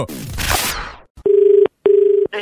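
A whooshing sweep fades out, then a telephone ringback tone buzzes in two close, even bursts, the double-ring pattern of a call going through, with a third beginning at the end.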